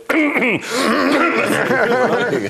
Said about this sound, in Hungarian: Erről megírta a lindés, hogy a kormány propaganda azt terjeszti, hogy Gyurcsány Ferenc krahácsolásokkal próbálja irányítani